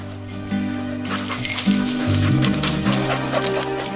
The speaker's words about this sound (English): Just going to run this dog to see if we can find any type of uh, human remains that are left.